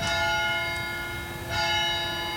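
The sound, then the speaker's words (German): A small bell of the synagogue in Endingen, canton Aargau, Switzerland, rings out with two clear strikes about a second and a half apart, each leaving a bright, sustained metallic tone that hangs in the air. No voices are heard. “Endingen ist die einzige erhaltene Synagoge Europas mit Glocken”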